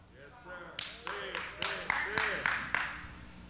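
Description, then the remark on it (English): A single woman claps hard and fast, about eight sharp, evenly spaced claps ringing out, while a voice carries on talking underneath. “I hope you wasn't clapping so hard because you plan on throwing me out.”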